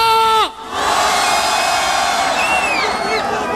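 A big live crowd at Fun Radio's Party Fun Live in Marseille roars and shouts continuously, cheering for Marseille and Valbuena, with whistles and high voices rising above the loud wall of cheering after a brief sliding tone at the start.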